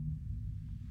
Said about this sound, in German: Irgendetwas hat jetzt gerade ein Geräusch gemacht. Das ist ein Zug. Der Zug macht so Geräusch.